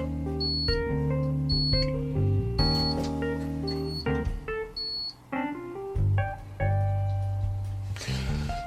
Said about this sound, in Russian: Пищит. Конечно, пищит. Потому что выключен системный блок. Это стационарный компьютер.